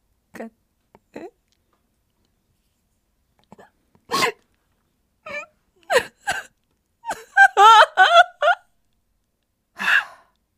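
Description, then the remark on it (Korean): Someone sitting by the window in a small café breaks down sobbing, with no talking: short hitching gasps and hiccup-like catches of breath build into a run of shaky, wavering cries, then one last sob. “주책맞게 또 울음이 터지고 말았습니다.”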